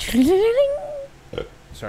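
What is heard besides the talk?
burp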